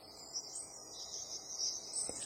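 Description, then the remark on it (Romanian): A steady, high-pitched chorus of crickets chirping continuously, fairly quiet, forming a constant shimmering trill with no voices present. “Auzi păsările ciripind, zumzeitul albinelor, aripioarele fluturilor în timp ce zboară și țiuitul greierilor.”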